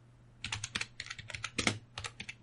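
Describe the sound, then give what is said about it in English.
Rapid typing on a computer keyboard, entering Vernon, France into Google Maps, a quick uneven run of crisp clicking keystrokes with brief pauses between bursts, over a low steady hum and no voices. “I just typed Vernon, France into Google Maps.”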